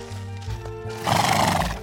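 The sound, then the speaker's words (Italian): A white horse ridden by a young man whinnies loudly, its shrill neigh rising over the clatter of hooves as the rider brings it to a halt. No voices are heard. “il giovane fermò il cavallo e la guardò senza dire una parola.”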